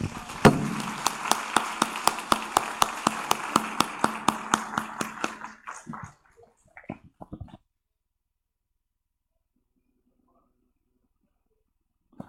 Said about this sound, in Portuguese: Podemos aplaudir Jesus.